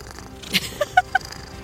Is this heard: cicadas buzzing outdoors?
no